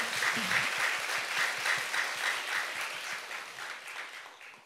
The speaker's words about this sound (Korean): 여러분들을 위해서 박수 한번 주세요.